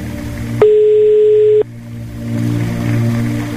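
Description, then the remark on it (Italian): A single steady telephone line tone, a flat mid-pitched beep lasting about a second, sounds loudly over a low humming background and then stops, as a radio show's call goes unanswered, with no voices. “Eh, ma mi sa che l'abbiamo perduto in questo caso, non prende il telefono, mannaggia.”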